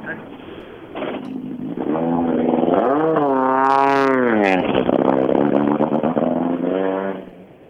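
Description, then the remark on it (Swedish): The last rally car, driven by rally leader Hampus Jakobsson, roars past, revving hard with its pitch climbing and then dropping away, loud and sustained for several seconds before cutting off. “Ja, sista bilen då.”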